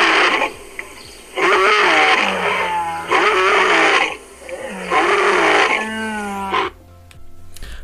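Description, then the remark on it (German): A lion roars and snarls in three loud, growling bursts, each a second or more long, separated by brief pauses, like an animal fight. “kommt ein großer Löwe um die Ecke.”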